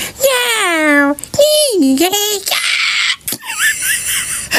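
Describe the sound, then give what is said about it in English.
A person mimics the whine a pet cat makes when it wants something, with two loud, drawn-out, nasal wails that slide and waver in pitch, followed by a few shorter breathy, squeaky sounds. “They have a certain whine that they know bugs you.”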